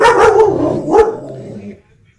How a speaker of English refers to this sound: going nuts, like barking like it's like a creature.